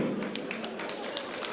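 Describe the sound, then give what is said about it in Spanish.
A handful of scattered hand claps, irregular and fairly soft, ring out over a steady murmur of voices, with no clear rhythm. “No aplauda eso.”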